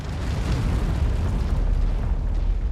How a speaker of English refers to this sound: More artillery has just been called on you. You're walking around it. Okay, you can hear. Okay. Oh, okay. So that that's cool effects on the ground. So it's like uh. Okay, I like that. I like the sound of that. Nice thud thump